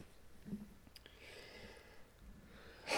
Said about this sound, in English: Excuse me, cough.